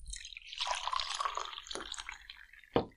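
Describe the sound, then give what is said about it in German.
Red mulled wine pours steadily into a mug for a couple of seconds with a bubbling, rising gurgle, followed by a sharp clink of the vessel near the end; fairly clear, no talking. “ich tue jetzt mal was einschenken hier, gell? Mal für dich, für dich jetzt mal schon mal eine Tasse.”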